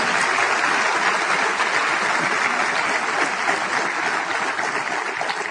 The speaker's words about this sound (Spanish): Un aplauso, por favor, para la corporación, por supuesto.